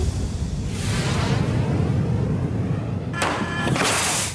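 A steady, heavy low rumble builds, then a sudden loud bang breaks in near the end, followed by a bright, rushing whoosh over the deep roar. No voices are heard.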